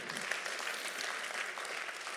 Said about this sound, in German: Nochmal ganz großen Applaus an unsere Pioniere hier. Ohne euch gäbe es uns nicht.